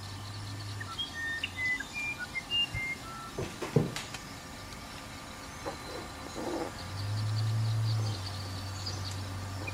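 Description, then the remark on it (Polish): A deep, steady electronic hum sounds briefly, falls silent, then returns at a noticeably higher pitch and holds, while faint birds chirp in the background and some soft thuds occur. “to buczenie w tle, które słyszycie, to jest 95,9 Hz.”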